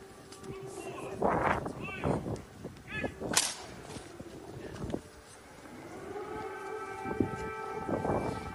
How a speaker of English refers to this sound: Now, if you're a normal citizen of the city and you hear those air raid sirens mm -hmm. and you don't know what's going on, you're thinking, oh shit.